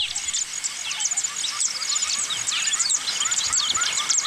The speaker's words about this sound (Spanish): Oye, tenemos una protesta de pajaritos azules acá en la ventana de la radio